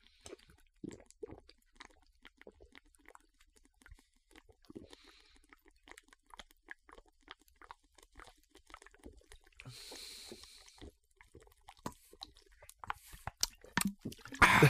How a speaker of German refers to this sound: Trinken wir so weit wir kommen oder trinken wir sie aus? Wir trinken Ex.